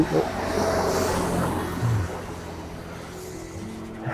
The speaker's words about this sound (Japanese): ちょっとなんかめっちゃ大きな音の車が通りますね、後ろから。